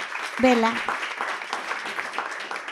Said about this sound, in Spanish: Okay, súper padre. Gracias. Un aplauso para, para